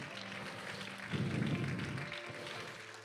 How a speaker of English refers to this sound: Clap your hands to the Lord all across this sanctuary for just a moment.